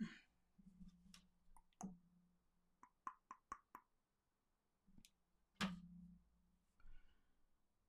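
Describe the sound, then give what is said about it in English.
Sharp tongue clicks pop, scattered irregularly with a quick run of four in the middle, over a low hum and no talking. “I hadn't realized I tongue clicked so much.”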